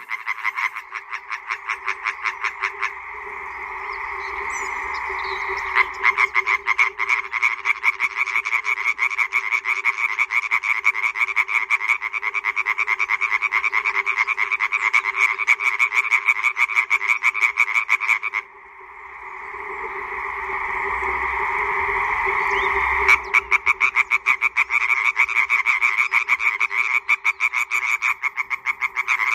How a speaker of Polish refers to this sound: Do tego stawu pełnego żab powrócimy tuż po godzinie 8.